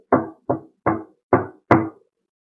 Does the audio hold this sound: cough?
no